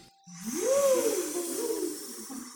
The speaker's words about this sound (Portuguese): De repente, chegou o vento.